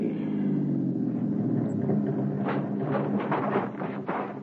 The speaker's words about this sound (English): Keep the engine idling to cover any sounds you might make.